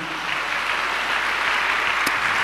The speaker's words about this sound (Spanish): Dale un aplauso a Dios por esto, amado hermano.